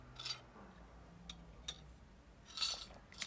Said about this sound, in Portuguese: Esperem para aí, porque vou mandar aqui um golinho de água.